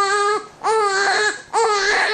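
An inconsolable baby crying in three loud, high-pitched wails, each rising then bending down in pitch, separated by brief gasping pauses for breath.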